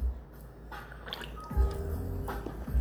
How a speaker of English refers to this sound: Pardon me, guys, I'm just sipping on my Japanese beer here. You know, I love my Asahi, I can't help it.